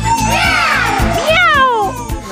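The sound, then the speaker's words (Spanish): An electric guitar wails in bending, sliding phrases that mimic a cat's meows, answering the vocal in a rock song, loud over a steady thumping rock beat. “Y … con la guitarra contestando.”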